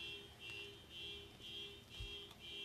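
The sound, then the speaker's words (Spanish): An electronic alarm beeps over and over in a steady, pulsing pattern of high-pitched tones. It sounds fairly quiet, with no talking. “Yo siento que esto está terriblemente sonando a que no va a parar. Pero si apago la alarma, Vuelve a sonar después.”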